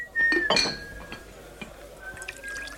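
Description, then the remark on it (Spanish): Dishes and a big pot of pote stew being set down for serving: a quick cluster of clinks and clatter near the start, then a faint, sustained ringing tone with scattered light taps. No talking. “Precisamente, aquí viene el pote.”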